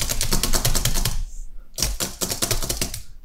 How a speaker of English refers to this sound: Let me just really type on my mechanical keyboard real quick.